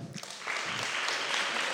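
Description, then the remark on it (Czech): A crowd breaks into steady applause, the dense clapping swelling quickly after a brief quieter start and holding loud and sustained to the end. “Já vás poprosím o potlesk”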